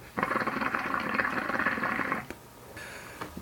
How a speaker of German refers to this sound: Ich hatte einen langen Tag, eine harte Woche, eine erfolgreiche Woche, deswegen werde ich heute dabei rauchen. Ich weiß nicht, ob ihr es hört, aber hier ein bisschen blubbern.